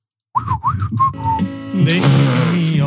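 A person whistles a few short, swooping notes in quick succession, then a steadier tone, before a louder, fuller burst of music with a noisy wash takes over.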